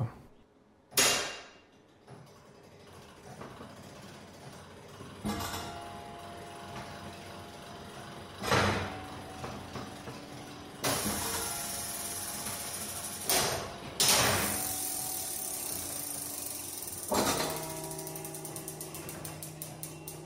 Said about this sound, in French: Quand on découvre l'énorme mécanisme qui fait, sonner les cloches, ça permet de vraiment se plonger dans, le lieu.